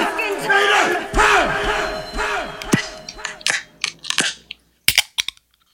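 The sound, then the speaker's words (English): A loud crowd roars and shouts, then fades into a series of sharp clicks and metallic snaps, ending with the crisp crack and short fizz of a can of Hermit Thrush Brewery Sunset Lake raspberry and spruce wild sour hard seltzer being opened. “That's a solid crack.”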